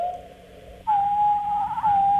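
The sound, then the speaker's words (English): A wood thrush's song from its right voice box alone, slowed to one tenth speed: one sustained, pure whistling tone that steps up slightly in pitch partway through and holds steady, loud, with no voices. “That's his right, right voice box.”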